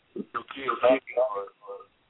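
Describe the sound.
A voice comes through a phone line sounding garbled and muffled, thin and tinny with the words smeared beyond recognition, in a few short bursts over about two seconds.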